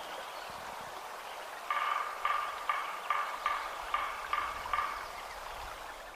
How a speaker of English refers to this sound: Coming up is the sound of a woodpecker.